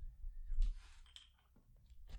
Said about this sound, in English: Let's see if I have a piece of paper around here. I do. Let me just grab this.